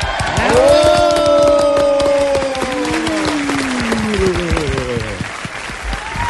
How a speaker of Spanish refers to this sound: Recibamos con un fuerte aplauso al señor Carlos Fernando Galán.